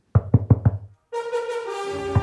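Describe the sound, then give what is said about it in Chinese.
Four quick, hollow knocks rap on the wooden door of Grandma's house in a telling of Little Red Riding Hood, in an even rhythm, followed after a short pause by a bright, sustained musical tone that rings on to the end. “他急急忙忙敲敲外婆家的门。”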